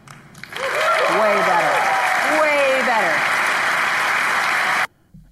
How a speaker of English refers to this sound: I don't know if I would have clapped for it, but I think it, I think it's better.